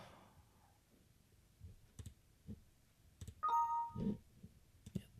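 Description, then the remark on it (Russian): Several crisp computer mouse clicks sound one at a time, spaced irregularly over a few seconds, as the direction to Mecca is calculated on a computer, with a short bright electronic chime ringing out partway through. “Для того, чтобы сегодня мы это сделали в 4 клика.”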